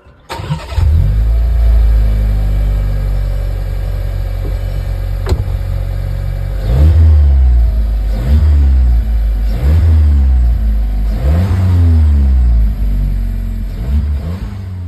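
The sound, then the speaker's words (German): A Skoda Karoq SUV engine starts and idles, then revs up repeatedly in a series of rising and falling surges, with a faint turbocharger whistle under the engine note and no one talking. “Aber man hört einen Turbolader irgendwo da im nicht ganz so sportlichen Sound, der immer so ein bisschen pss.”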